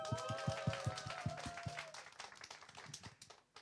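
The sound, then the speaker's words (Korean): A church audience breaks into loud, dense applause for the pastor leading the worship singing, lasting a few seconds. Steady rhythmic thumps and a sustained tone run underneath at first, then fade, leaving the clapping to continue before it tapers off. “할렐 박수 한번 박수.”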